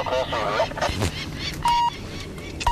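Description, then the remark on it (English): Adult peregrine falcons give loud, harsh alarm calls as a man climbs toward their nest to band the young birds, a rapid run of cackling cries followed by a few sharper, sustained notes. “Mom and Dad are frantic as he gets closer to the nest.”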